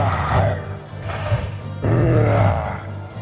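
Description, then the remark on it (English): A person voicing the ogre Rort in a tabletop game, as it rages, growls out a deep, guttural ogre roar in two long, rumbling bursts, loud and low-pitched with a rough, throaty texture, and no words spoken. “He's going to rage himself um, as the ogre lets out a roar”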